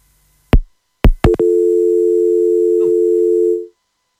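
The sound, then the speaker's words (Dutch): A telephone busy tone after a call drops: three sharp clicks, then a steady, unbroken mid-pitched electronic hum lasting about two seconds before cutting off. No one speaks. “Oh, nou, de verbinding valt even weg.”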